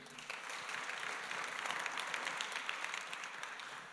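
An audience at a live talk applauds the cameraman steadily, dense overlapping clapping from many hands that fills the space evenly from start to finish without any voices on top.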